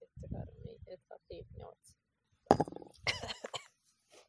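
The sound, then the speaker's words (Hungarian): Low gulping and swallowing sounds come in several short bursts, followed by a sharper clatter and an exhaled breath, as someone drinks from a glass after a toast. “Kár, hogy nem hadszögletű pohárból iszunk.”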